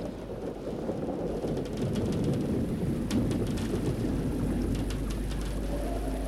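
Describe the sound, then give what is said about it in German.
Steady heavy rain pelts a windowpane with sharp individual drops ticking through, while a deep rumble of thunder rolls underneath for the whole stretch. No voices. “Der Regen klatscht gegen die Scheibe.”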